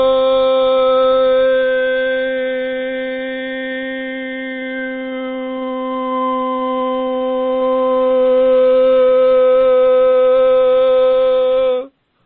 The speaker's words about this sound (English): one of the very very cool things that you can do with Hallelujah is simply do it as vowel sounds, and I'll just okay. do it a little bit.